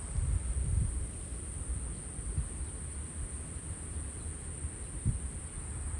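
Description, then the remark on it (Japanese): A steady, continuous high-pitched trill of autumn insects runs unbroken through the whole recording over a low rumble of car traffic, with no voices present. “声も聞こえますかね車の音もうるさいですけど虫の声はもう秋の虫ですね”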